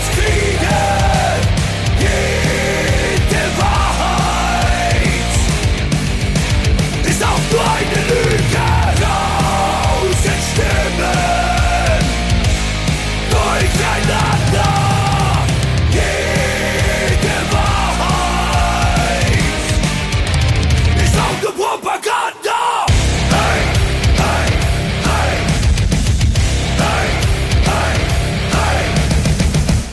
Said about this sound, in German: Deswegen spielen wir jetzt noch einen äh, letztes Mal einen Song von äh, der sogenannten Band